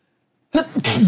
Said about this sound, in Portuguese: Vou espirrar.